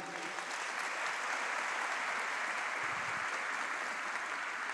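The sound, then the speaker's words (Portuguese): Sustained crowd applause for volunteers called up to the front, a dense, steady wash of many hands clapping at even loudness throughout, with no voices standing out above it. “Give it up for these Uma salva de palmas para os voluntários aqui.”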